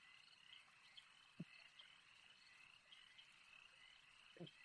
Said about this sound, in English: And the sounds of the swamp around you get louder and louder as you progress deeper and deeper into the swamp.